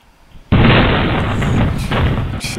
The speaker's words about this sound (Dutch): Even een voorbeeld wat er kan gebeuren met illegaal vuurwerk. Dia. dit is een ringdoorcamera.